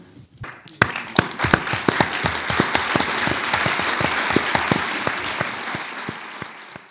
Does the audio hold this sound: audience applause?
yes